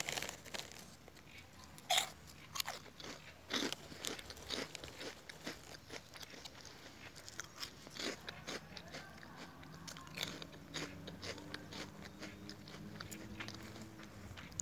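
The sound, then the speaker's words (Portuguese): Crunching as someone bites into and chews crisp food, with sharp crackling bursts repeating in an irregular rhythm throughout, fairly loud and with no talking. “Vou comer mais.”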